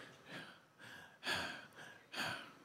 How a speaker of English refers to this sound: J- just do this put, uh, put your hand on your chest, put your other hand on your belly, and we're gonna breathe properly. When you have shallow breathing, you feel it in your shoulders.